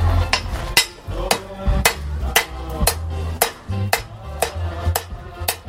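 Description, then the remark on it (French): About a dozen sharp hammer blows strike a small piece of metal in a steady rhythm, each hit bright with a brief metallic ring, over a low background rumble. “Et on va mettre quelques coups de marteau.”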